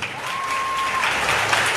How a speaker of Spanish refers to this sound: Vamos a ver si el divino niño se lo da. Démosle un aplauso.